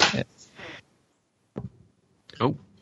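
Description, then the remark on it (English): A cat working a door open: a scraping rustle, then a couple of sharp knocks and rattles as the door gives way, moderately loud, with short quiet gaps between. “Oh no, that's my cat opening a door.”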